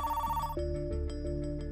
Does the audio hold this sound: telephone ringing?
yes